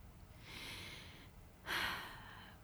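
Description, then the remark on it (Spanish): A slow breath drawn in through the nose, followed by a slightly louder, airy exhale, as a person lying on a mattress practises mindful breathing; quiet with no talking. “Me concentro en la sensación de mi respiración entrando y saliendo por mi nariz.”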